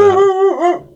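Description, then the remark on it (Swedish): A dog in a studio whimpers in one drawn-out, high whine that holds steady, then bends up and down in pitch before trailing off, with no talking over it. “Ja, det är en hund i studion.”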